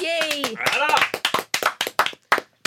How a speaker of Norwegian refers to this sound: Takk, takk. Og takk for applausen. Ja, vær så god. Det bare mangle. Skulle bare mangle. Det er altfor sjelden man får applaus bare ved å være til stede.